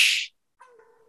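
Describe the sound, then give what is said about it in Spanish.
A sharp breathy hiss, then after a short pause a person gives a brief, steady howl-like wail in a thin voice, fairly quiet and cut off after about half a second. “Taullido estuvo igual de jodido que los pases de que la temporada de Patrick Mahomes”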